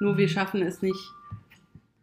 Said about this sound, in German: Ähm, sorry, das war mein Handy.